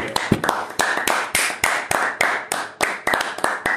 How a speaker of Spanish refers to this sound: Sí, sí, sí. Un aplauso, un aplauso por los inventores del Crocker